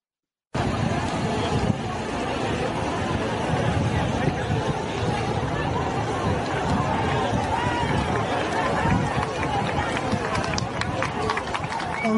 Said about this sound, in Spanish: Vamos a ver eh, a los canarios protestando.